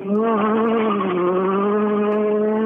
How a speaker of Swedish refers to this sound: Ja, det är fantastiskt ljud i de här små bilarna som, som i stort sett ska vara, vara otrimmade om man jämför med många andra bilar i klassen. Ja, 1600 sugmotorer då.